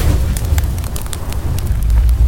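A whole apartment on fire, flames licking heavy red velvet curtains: a loud, steady roar of fire fills the space, deep rumbling underneath with scattered sharp crackles and pops flaring up throughout.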